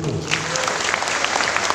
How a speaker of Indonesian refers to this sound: saya lihat ada dari Simpang Hulu mana Tepuk tangan tepuk tangan tuh Simpang Hulu